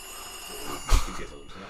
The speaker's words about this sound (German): Oh, jetzt klingelt das Telefon.